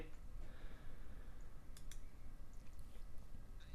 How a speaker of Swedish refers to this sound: när du hör henne tugga så här.